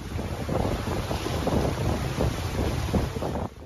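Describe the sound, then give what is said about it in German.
A boat carrying a research team moves steadily across Lake Salvador, an oxbow lake of the Manu River, its engine droning under gusty wind buffeting the microphone and water splashing along the hull, continuous for several seconds before easing off. “Nach drei Tagen Anreise über schlammige Pisten und durch Flüsse gelangen wir mit dem Forschungsteam zusammen im Boot auf den Salvadorsee, einen Altarm des Manu-Flusses.”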